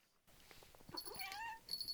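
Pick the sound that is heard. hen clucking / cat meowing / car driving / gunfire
cat meowing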